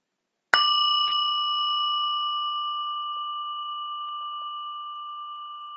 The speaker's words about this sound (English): and now combining the sound of chimes, of bells, with this image of merging with the water.